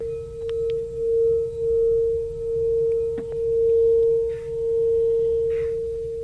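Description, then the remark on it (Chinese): A singing bowl being rubbed around its rim, sustaining one steady, pure mid-pitched hum with faint overtones that swells and wavers gently in loudness throughout, with no talking. “刚刚我是在磨波， 磨波。”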